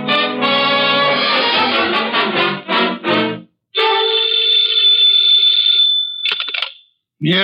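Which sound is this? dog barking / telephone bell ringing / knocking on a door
telephone bell ringing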